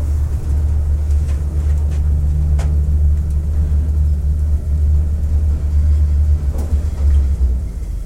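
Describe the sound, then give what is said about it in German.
An elevator, set in motion after a key is inserted, moving upward: a steady, deep mechanical hum and rumble that holds at an even, fairly loud level for about eight seconds, with a few faint clicks and no talking. “Ich habe in einem Aufzug einen Schlüssel eingesteckt.”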